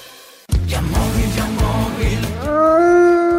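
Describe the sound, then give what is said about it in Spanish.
A wolf howls once near the end, a long rising wail that swells and holds, loud, after a stretch of heavy, pulsing beats that carry on underneath, in a Halloween-themed car-buying advert. “Ya estamos en Halloween y los lobos acechan.”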